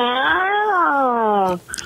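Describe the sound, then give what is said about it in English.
A person imitates a cat with one long, drawn-out meow, loud, the pitch rising slightly then sliding down before a brief breathy sound at the end. “I really want to be a cat. Meow, meow, meow, meow, meow, meow, meow, meow, meow.”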